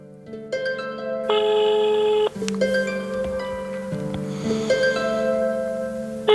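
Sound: telephone ringing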